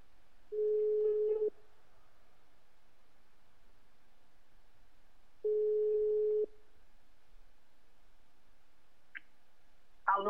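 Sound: telephone line tone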